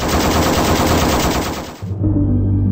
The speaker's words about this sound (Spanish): Y otro disparó una ráfaga de AK-47 sobre los rehenes del segundo helicóptero.